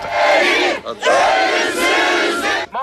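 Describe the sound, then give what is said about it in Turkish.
Thousands of people at a memorial ceremony in Karşıyaka cemetery, marking 41 years since the execution of Deniz Gezmiş, Yusuf Aslan and Hüseyin İnan, chant slogans in loud, sustained unison, the shouted phrases separated by brief pauses, with many voices blending into a dense roar. “Törene binlerce kişi katıldı. Deniz gezmiş ve arkadaşlarının mezarlarına çiçekler bırakıldı, sloganlar atıldı.”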